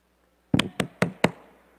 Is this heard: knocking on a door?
yes